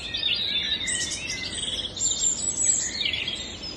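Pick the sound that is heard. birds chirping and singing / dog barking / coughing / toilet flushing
birds chirping and singing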